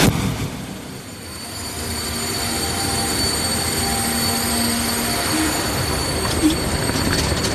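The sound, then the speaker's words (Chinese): A train rumbles steadily through a railway station in Marseille, with metallic wheel noise, faint high squeals and a continuous low roar, no voices. “一天呢，这一天到马赛来找我们，我去火车站接他。”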